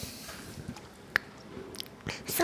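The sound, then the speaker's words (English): A girl drinking water after eating a gingerbread cookie: soft, wet sipping and swallowing sounds, quiet overall, with a sharp little click midway and a louder rustling burst near the end. No one speaks. “having a drink of water after her gingerbread cookie”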